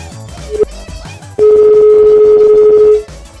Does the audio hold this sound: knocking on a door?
no